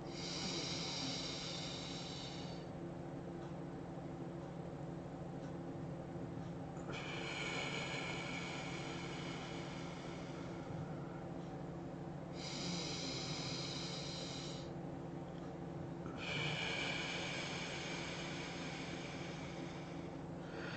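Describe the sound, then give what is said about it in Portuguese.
Slow, deep breaths in a breathing exercise, lungs filled fully through long sighs and the air released slowly, in a steady cycle, each lasting a few seconds, airy over a constant low background drone, with no talking. “Vamos manter essa respiração profunda pelo maior tempo possível”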